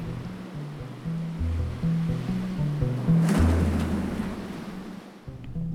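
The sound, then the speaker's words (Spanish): Ocean surf rolls steadily, swelling into one louder breaking wave midway before easing back, with a low droning tone shifting underneath. No voices. “Después vino el hastío, semana tras semana, otra vez el mar.”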